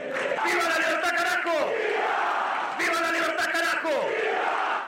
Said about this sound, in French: Devant une foule chauffée à blanc.